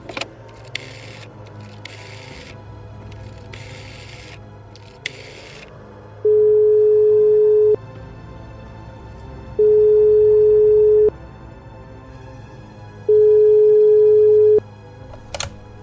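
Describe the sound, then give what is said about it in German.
A telephone ringback tone sounds while a call is placed late at night: three long, steady, evenly spaced beeps over a low background hum, preceded by a few short bursts of rustling noise. “geh jetzt ans Telefon und rufe äh, Herr Senft an”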